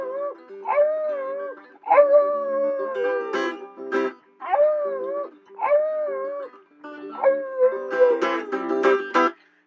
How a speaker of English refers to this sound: That there's a song called … with a little help from my doggy over there.